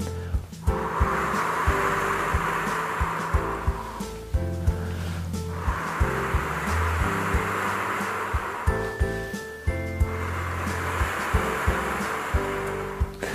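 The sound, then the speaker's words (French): A person blows through lips shaped into a small circle, making long, breathy whooshes that imitate wind rustling through tree leaves, in three drawn-out swells with short pauses between, over a soft, steady background tone. “Et vous soufflez en imitant le, bruit du vent dans les feuilles des arbres.”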